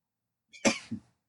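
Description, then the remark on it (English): A single sharp sneeze bursts out after a short intake of breath, followed by a softer trailing sound, then silence. No one is talking. “I'm about to sneeze.”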